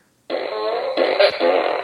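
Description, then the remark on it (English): A loud, buzzy electronic fart sound from a Minions fart blaster toy, starting abruptly and sustaining for over a second and a half with a slight wobble and no pauses. “It's the Minions fart blaster.”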